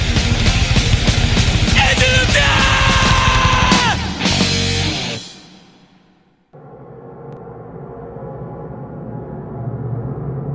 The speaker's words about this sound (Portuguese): grita aí.